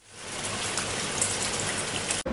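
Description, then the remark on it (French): Steady rain pouring down, a dense, even hiss of countless drops with scattered brighter splashes, loud, continuing without pause until it cuts off abruptly at the end. “Au bout d'un moment, il a commencé à pleuvoir.”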